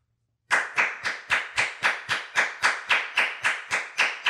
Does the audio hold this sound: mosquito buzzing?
no